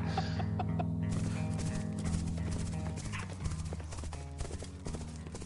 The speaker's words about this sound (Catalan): Ho sents? Són les petjades dels cavalls dels meus homes. Estàs perdut. Eh, t'equivoques, t'equivoques. Aquestes petjades jo diria que són els meus homes.